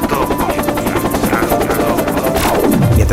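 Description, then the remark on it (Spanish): A helicopter roars, its rotor blades chopping in a rapid, steady thump over a loud engine whine, with the pitch sliding downward at the end as it passes. “La alianza comienza un periodo de ajustes que desembocan en una crisis económica y social, con escapes del poder en helicópteros.”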